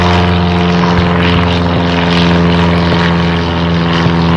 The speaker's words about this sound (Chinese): 我们都假设，如果有飞机飞过去，